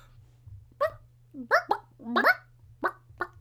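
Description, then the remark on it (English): A person imitates a clucking chicken with about six short, clipped vocal bursts in an uneven rhythm, over a faint steady low hum. “There you go. There's chicken.”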